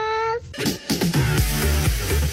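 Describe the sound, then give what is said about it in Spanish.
A short, bright cat meow sounds at the very start, then gives way to a dense burst of music-like sound with rhythmic low thumps for the rest of the moment. “Tengo miedo. Miau.”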